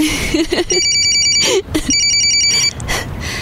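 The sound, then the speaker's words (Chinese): A telephone rings twice, each burst a rapid, high-pitched electronic trill lasting under a second, separated by a short pause, with a few faint vocal sounds underneath at the start. “哎，你怎么不接电话？”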